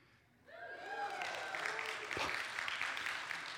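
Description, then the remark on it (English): Applause and cheering from an audience for the speaker's 17th anniversary swell up after a quiet start, with whoops and rising voices over a steady wash of clapping that holds loud to the end. “Pause for cheering.”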